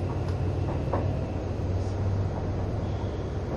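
Steady low rumble of the engine and motors of an HC85 series hybrid Limited Express Hida No. 1 train, heard from inside the Green Car on the run from Nagoya to Takayama, Japan, a continuous droning hum with faint mechanical clicks, no voices.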